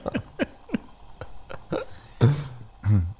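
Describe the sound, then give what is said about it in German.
A Bialetti moka pot on a stove hotplate in an office gurgling as the coffee comes up and boils: a quick series of short, wet sputters that swell into louder, throatier bubbling bursts near the end, with no talking. “stehen vor unserer Herdplatte in meiner neuen Kanzlei und versuchen, das Geräusch von einer Bialetti, die jetzt aufkocht, aufzunehmen.”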